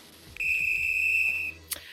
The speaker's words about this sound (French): Allez, c'est parti, il est temps de démarrer euh, et de siffler la première mi-temps.